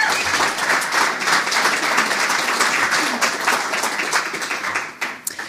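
An audience claps steadily as a speaker comes out, a dense wash of many hands sustained throughout and tapering slightly near the end, with no voices over it.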